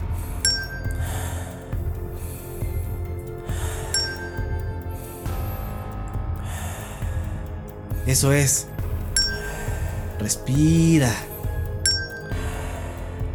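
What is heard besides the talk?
small bell ringing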